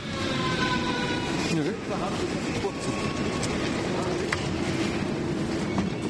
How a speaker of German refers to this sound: Äh, ja, okay. Ein Kurzzug.